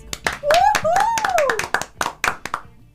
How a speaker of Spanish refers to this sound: ¿A quién aplaudimos?